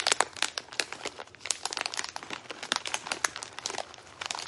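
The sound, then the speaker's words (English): A plastic snack bag crinkles as it is opened, a steady run of sharp crackles and rustles that keeps going for several seconds without pause, with no voices. “You will have a tremendous amount of snacks, and she might be opening them while you're trying to sleep, and you'll just hear plastic just.”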